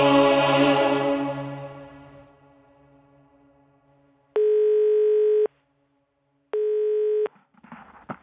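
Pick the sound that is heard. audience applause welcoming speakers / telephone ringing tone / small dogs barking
telephone ringing tone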